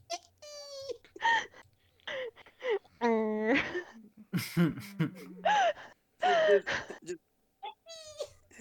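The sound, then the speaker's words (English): A voice imitates a squeaky rubber duck with a string of short, high, wheezing squeaks and gasps in quick bursts, fairly loud, broken up by brief laughter. “hug, he squeezes her so hard that her whole body sounds like a duck squeaky toy.”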